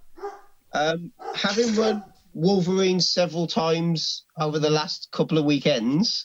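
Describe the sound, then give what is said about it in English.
Dogs bark while a man keeps talking over them, the short barks partly masked by his steady speech. “Yeah, sorry about the dogs.”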